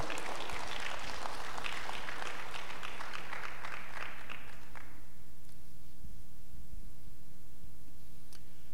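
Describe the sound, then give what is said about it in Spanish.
A crowd applauds with a dense, steady wash of many hands clapping that fades out after about five seconds, leaving a low hum and a few faint taps. “Alguien tiene que aplaudir y decir amén.”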